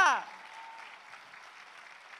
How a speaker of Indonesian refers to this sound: Berikan lagi tepuk tangan yang meriah bagi dia. Haleluya.